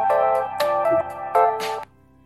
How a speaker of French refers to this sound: Ah, attendez, il y a quelqu'un qui m'appelle. Hein.